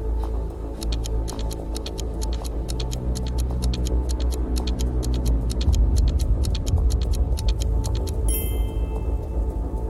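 A countdown timer ticks steadily and crisply over a low, droning backdrop, the sharp clicks repeating several times a second until a short bright tonal burst cuts in near the end.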